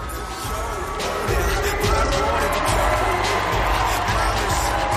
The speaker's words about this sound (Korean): 해피랜드의 마스코트 드림이가 나가십니다. 아, 드림이! 역시 날 향한 여러분의 환호 오늘도 감사해요. 땡큐.